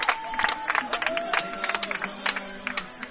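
A stadium crowd at an American football game in Kiel, with Braunschweig leading 21-10, cheers in a steady, dense roar with repeated louder swells and bursts after a kick return and tackle, a few thin whistle-like tones rising above the noise.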